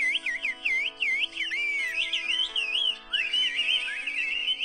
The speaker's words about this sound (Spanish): ah, esa señora. chifla chido, ¿eh?